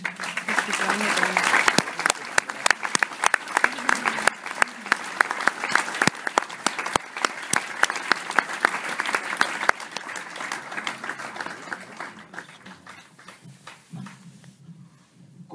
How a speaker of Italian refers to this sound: Quindi, signore e signori, facciamo un enorme applauso